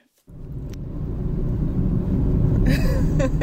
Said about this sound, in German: so, wir sitzen im Auto.